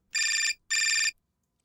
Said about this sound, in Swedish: Nu ringer det. Så här, så här är det i Barnens podd, att ibland ringer telefonen.